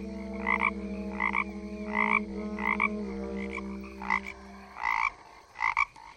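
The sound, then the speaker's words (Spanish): A toad croaks in a steady series of short, evenly spaced, clear calls, heard from afar in dense forest, over a low sustained drone that fades out before the last few louder croaks. “y no se sabe si era un sapo o un tigre.”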